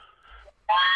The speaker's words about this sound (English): I knew it. That's my train horn. there it is.